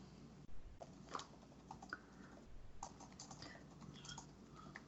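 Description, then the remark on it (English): Rapid clicking of computer keys as a search term is typed, an irregular stream of crisp keystrokes with brief pauses, heard on its own without any talking. “I'm gonna get put on some kind of FBI list by typing the search term.”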